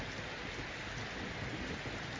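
A soft, steady patter of light drizzle falls continuously, a fine hiss of raindrops with no distinct individual hits and no voices.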